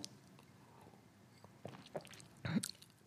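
Someone sips water: quiet, wet mouth sounds and a few soft slurps and clicks, growing slightly louder near the end, with no talking.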